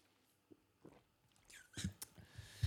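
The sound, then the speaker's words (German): Someone takes a sip of water: a few soft clicks, then a brief cluster of louder slurping and swallowing noises, followed by quiet mouth sounds. No one speaks. “Jetzt nehme ich mal einen Schluck Wasser.”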